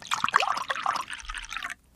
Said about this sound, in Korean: 이거 제가 와인잔 짠 하는 소리, 와인잔 부딪히는 소리 네. 제가 낸 거예요. 아. 어때요? 지금 물컵 아니었나요?